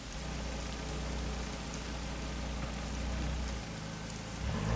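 Steady rain falls at a dacha (country house) overlooking a forest on a warm summer night, a dense hiss of drops spread across the whole range, with a low rumble underneath and no voices.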